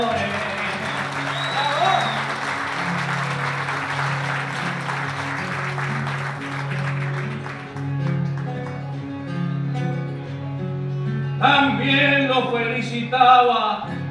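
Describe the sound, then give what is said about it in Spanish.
Sustained audience applause for the payadores at a payada, a dense crackle of many hands clapping over steady low instrumental chords, thinning out after several seconds before a payador's singing voice comes in over the music. “Espero aplauso a mis compañeros que son todos ganadores.”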